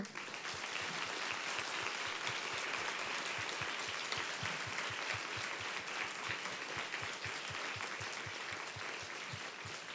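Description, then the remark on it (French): An audience applauds three speakers, clapping steadily for the full ten seconds, a dense, even wash of many hands with a fast, regular rhythm and no voices standing out. “On peut, vous applaudir.”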